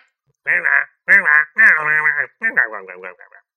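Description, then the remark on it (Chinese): A voice imitates frogs croaking: four loud, drawn-out nasal croaks of uneven length, the last breaking into shorter choppy bursts before trailing off. “就在这个时候，一群青蛙围住了克莱辛，你一言我一语，要他评判谁是跳得最快的青啊？”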